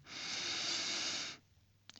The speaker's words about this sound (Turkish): Peki nefes egzersizini yine kısaca hatırlatalım. Burnunuzdan derin bir nefes alın.